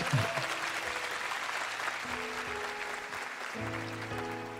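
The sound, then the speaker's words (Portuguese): An audience claps steadily for the Holy Trinity at a preacher's call, in a dense, sustained wash of applause, with faint sustained musical tones underneath and no voices heard. “Pode aplaudir bem forte a Santíssima Trindade.”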